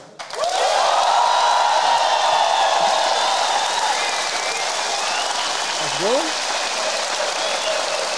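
An audience bursts into applause, clapping to vote for which story they want to hear, running at a steady, loud level for about eight seconds, with a few whoops and cheers rising above the clapping.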